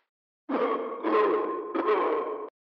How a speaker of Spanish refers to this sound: Ahí, lo escuché toser. ¿Oyeron esa tos? Una especie de tos de doble muy ronca, Parecía provenir de...